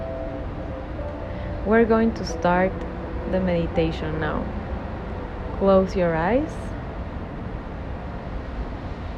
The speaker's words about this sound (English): So just sit comfortable, and what you hear is the waves of the ocean.